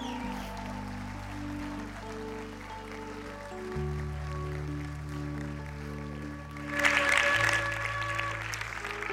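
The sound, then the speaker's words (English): A church audience claps steadily as a hand of praise to the Lord after a prayer, over sustained organ-like chords, the applause swelling into a brief louder burst with a cheer toward the end before settling back. “Come on, somebody, let's give the Lord a hand of praise.”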